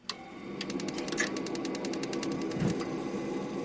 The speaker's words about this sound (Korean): 보일러 돌아가는 소리가 났다.